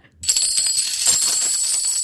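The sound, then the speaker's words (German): Coins cascade and jingle continuously for about two seconds, a bright metallic shimmer with sharp high-pitched clinks, fairly loud and steady after a sudden start, with no voices. “Also entweder das ist die Glocke einer Kuh. Falsch. Oder es ist Geld.”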